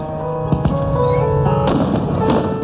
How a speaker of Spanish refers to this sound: Están lanzando fuegos artificiales. Vamos arriba para verlos.